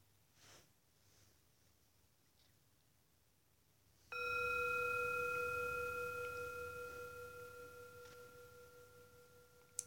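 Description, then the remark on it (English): A meditation timer bell strikes once, marking the start of a meditation, after several seconds of near silence, ringing with a clear, pure tone and layered overtones that hang in the air and fade slowly. “Once the, th- the bell goes, we'll begin the meditation.”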